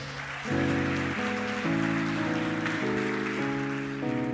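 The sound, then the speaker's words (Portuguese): Steady audience applause given as a round of applause to God, a dense crackling wash of clapping, continues under loud sustained keyboard chords that shift every half second or so. “Você pode dar uma salva de palmas a Deus?”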